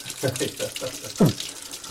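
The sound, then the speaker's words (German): A tap runs steadily, left running for a moment so the water turns warm, a broad hissing wash of water with a slight splashing texture, while people talk over it. “Du musst natürlich einen Moment ablaufen. Ja, lassen, das ist bei mir auch. So, also warm Wasser.”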